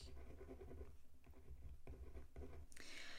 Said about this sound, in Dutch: Ah jij, nu moet ik hier gaan schrappen op mijn papier. Dat vind ik niet zo leuk.